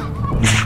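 A single sharp sneeze from a girl, a short breathy buildup bursting into a loud, hissing expulsion of air.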